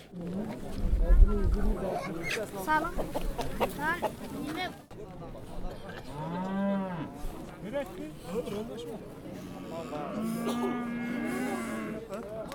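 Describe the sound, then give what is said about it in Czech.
Cattle moo several times in drawn-out, wavering calls over a busy bustle of indistinct voices and crowd noise at a regular Saturday market where live animals are sold. “tedy chovu třeba ovcí, kráv a tak dále”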